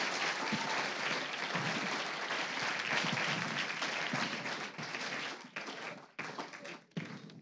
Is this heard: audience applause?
yes